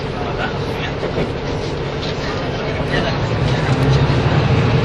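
A KiHa 85 series diesel train on the Hida No. 1 service from Nagoya toward Hida-Kanayama, heard from inside: a steady, loud rumble of engine and wheels on track that carries on without a break and swells slightly toward the end.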